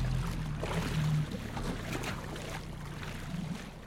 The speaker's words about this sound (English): Also tied to the buoy was a 12 foot aluminum skiff, which I untied and pulled the stern. Then we jumped into the skiff, and Captain Donald started the 10 horse outboard.